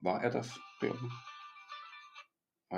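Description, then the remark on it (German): A melodic electronic mobile phone ringtone chimes in with steady, sustained tones for about a second and a half, starting under brief conversational speech and continuing alone before cutting off. “das war das Handy, Jörg war gerade ein Ton zu hören”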